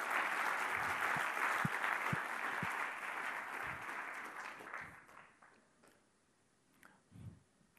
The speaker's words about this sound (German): Und wir sind von Herzen dankbar für das ICF-Zug. Ohne euch gibt es ICF Luzern nicht. Geben wir doch einen Applaus als ICF-Zug. Danke vielmals.